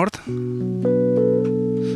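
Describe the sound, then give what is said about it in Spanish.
A brief voice at the start gives way to a warm Rhodes-type electric piano chord played on a keyboard, with a few more notes layered in one after another and left ringing, steady. “Un, tipo de Rhodes.”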